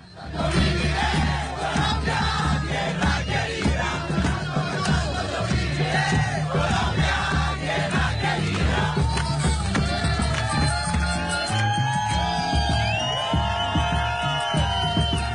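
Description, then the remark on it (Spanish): A large crowd of Colombian football fans sings a Colombian anthem together loudly in unison, a continuous, dense roar of voices with shouts and whistles, like a stadium chant that carries on steadily without pause. “Y este se convirtió en un himno sin duda para todos los colombianos en el mundo, desgarra lágrimas cada vez que lo escuchan y recuerdan su nación, pero también ha acompañado las selecciones de fútbol”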